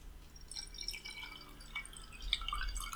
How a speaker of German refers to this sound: Also entweder musst du im Podcast Wasser möglichst leise eingießen, so ja. wie du es gerade versucht hast, genau, damit es genau. keiner mitkriegt.